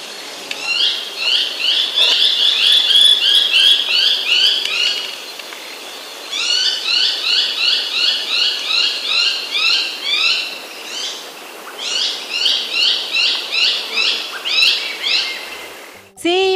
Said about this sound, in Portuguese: esse é o cachorro do Mato Vinagre.